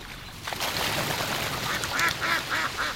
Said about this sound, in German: Wir haben uns in einer der vielen Kleinstädte Südbrandenburgs verabredet, setzen uns auf eine der Holzbänke am Rande eines Teiches. Ein Schwarm Enten fühlt sich von uns gestört, die Tiere springen von der Wiese ins Wasser.